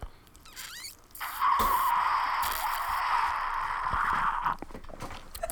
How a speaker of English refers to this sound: So we're gonna do a little bit of ASMR of me drinking this lemonade. Are you ready for this?